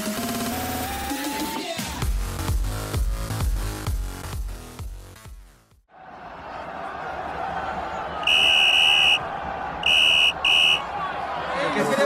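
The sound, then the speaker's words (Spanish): A referee's whistle ending a football match blows three shrill blasts, one long then two shorter, over a loud stadium crowd roar, following a stretch of music that cuts off. “el pitido del árbitro y el encuentro finaliza.”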